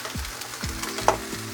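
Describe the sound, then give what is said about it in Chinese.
A Korean-style seafood pancake sizzles steadily in a hot pan as it is flipped, a continuous crackling hiss with a few low scraping bumps and one brief sharper clink near the end. “做了韓式海鮮煎餅”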